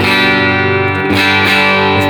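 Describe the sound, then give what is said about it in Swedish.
Clean electric guitar tone played through a clean boost pedal, with ringing, sustained chords restruck a couple of times, loud, with no one talking. “Nu kör vi i alla fall clean boost då. Så att då mm. börjar vi med rent ljud då, helt mm.”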